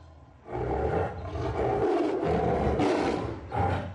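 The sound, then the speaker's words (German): A tiger, one of those raised by monks at a temple, roars loudly, a deep rumbling growl that swells in several surging bursts over about three and a half seconds, with no voices present. “147 Tiger haben die Mönche und ihre Helfer bis heute großgezogen. Nicht alle sind so freundlich zu den Besuchern.”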